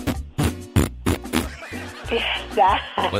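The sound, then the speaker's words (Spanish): A person imitates a bear's growl: a run of short, guttural grunts in quick rhythm, then a longer, rough, wavering snarl that rises and falls in pitch. “Pero es que no escuchaste cómo lo hizo este oso, le hizo...”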